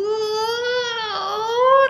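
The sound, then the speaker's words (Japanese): A person's voice imitates cats yowling as they fight and threaten each other, apparently over a female, around a guesthouse: one long, loud, wavering moan that sags in pitch partway through and then climbs again, held for about two seconds. “その1、2週間ぐらい前からゲストハウス周辺には猫がメス争奪戦してたのかなあの、よく喧嘩をし始めていて威嚇をし合っていました。”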